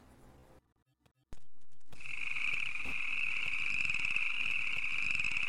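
frog croaking

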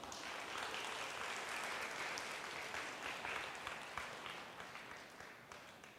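audience applause

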